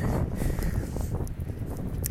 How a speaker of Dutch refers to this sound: Oh, nou staat een hele harde wind. Ik hou even mijn handje voor de microfoon.